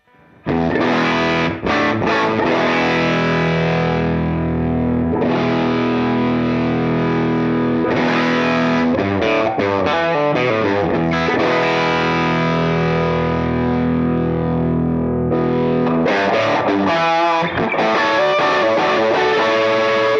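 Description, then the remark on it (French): A distorted electric guitar on its bridge pickup, through the normal channel of an amp with a boost pedal, plays loud, sustained chords and short riffs with a bright, biting edge, continuing steadily for about twenty seconds with no voices. “Voilà, là j'étais sur le micro euh, manche, je repasse sur le micro chevalet.”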